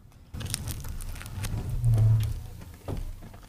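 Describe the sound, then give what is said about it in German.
Crisp crunching as someone bites into a fresh Bierstange pretzel stick, a few sharp cracks followed by muffled chewing over a low background rumble, with no talking. “Des Abbeißens von einer Bierstange, jetzt live on air.”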